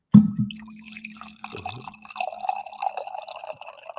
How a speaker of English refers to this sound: Do I have a coffee pour for the splash play peeps? I think I have one more left,